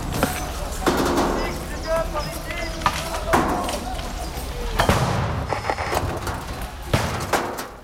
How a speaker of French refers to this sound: Et tout est réutilisé pour faire directement une barricade et maintenir la position tandis que des lacrymos sont au niveau balancés.